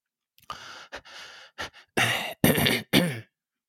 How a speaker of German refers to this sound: muss mich kurz räubs, räuspern.